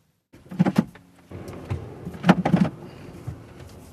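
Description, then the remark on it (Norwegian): A rented, not-quite-new Land Cruiser from Camel car rental shifts into its low crawl gear on a steep, slippery road in morning fog in Eritrea, before a 2,600-metre descent of hairpin bends: a few sharp mechanical clunks and clicks over a steady low engine rumble, with no one speaking. “Senai setter landcruiseren i krabbegir.”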